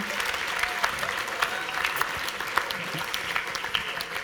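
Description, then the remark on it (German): An audience claps steadily for about four seconds, a dense patter of many hands with small sharp peaks, fairly even in loudness throughout and with no voices standing out. “Gebt ihm nochmal einen kleinen Applaus.”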